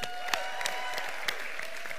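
Steady applause from a crowd welcoming first-time visitors, many hands clapping in a dense, continuous patter with a few sharper claps standing out, sustained at an even level for the whole stretch without any voices.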